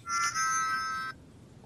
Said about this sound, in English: Um, that was weird. Sorry, that was my phone. That was I named that tune.